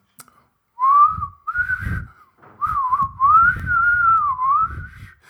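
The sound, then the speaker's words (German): A person whistles a short improvised tune as a makeshift jingle, the pitch sliding and wavering through a few connected phrases with brief breaths between them, no one speaking. “Kannst du flöten oder pfeifen?”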